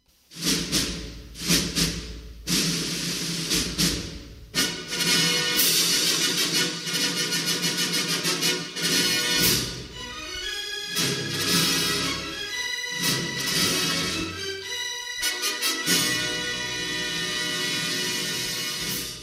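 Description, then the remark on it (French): A grand orchestral fanfare of the 20th Century Fox film studio logo, with bold brass chords punctuated by sharp percussion hits, playing loud for about twenty seconds with no voices. “Ah, bah, voilà, c'est la 20. 20 Sandy Fox.”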